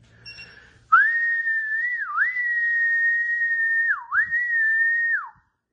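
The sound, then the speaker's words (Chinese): A sustained, high, clear whistle held for about four seconds, steady in pitch with two quick downward dips, sounding alone with no talking, whistled to call the dogs Laite and Bite. “吹的口哨来了，哎，怎么莱特今天，比特今天反应迟钝呢？”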